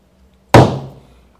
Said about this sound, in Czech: Tak, já bouchnu dveřma